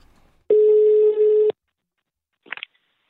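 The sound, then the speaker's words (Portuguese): A telephone ringing tone sounds once, a steady low buzzing hum lasting about a second, followed by silence and a brief faint crackle as the line picks up, as a call is placed to an exhibition curator. “Vamos ligar para ele.”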